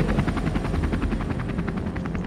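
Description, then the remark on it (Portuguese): A helicopter passes by, its rotor thudding in a steady, rapid rhythm over a loud low engine rumble, the chopping blades continuous throughout. “vocês veem logo em seguida, assim, passado tipo 3 segundos que o display caiu, tipo um helicóptero passando naquela direção.”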